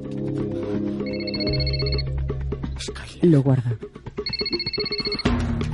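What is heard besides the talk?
mobile phone ringing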